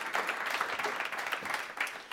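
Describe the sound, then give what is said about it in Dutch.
A room full of people claps steadily, a dense patter of many hands blending into warm, continuous applause with no voices over it. “Geef haar een hartelijk applaus.”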